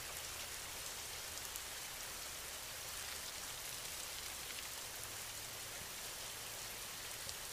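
Steady, even rain falls throughout, a dense wash of hiss with faint scattered drops pattering on a surface. It's soft and continuous, with no voices.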